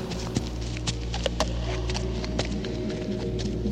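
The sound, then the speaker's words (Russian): Hooves of a donkey carrying an old man and a young woman clip-clop in a steady walking rhythm as they enter old Bethlehem, a series of sharp taps over a constant low hum, with no voices. “Старик и дева верхом на ослике.”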